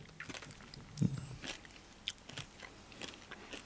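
Soft crunching of crisps being chewed, a run of crackly bites coming every half second or so at a quiet level, with no one talking.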